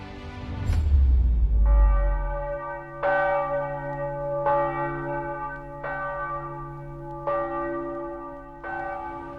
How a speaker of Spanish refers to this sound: La nueva bandera que flameaba era roja y las campanas resonaron por dos horas anunciando la libertad.